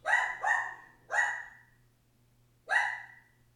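A dog barks four times, two quick barks close together, then a single bark, and after a pause one more. The barks are fairly loud, with no talking, just a faint low hum underneath.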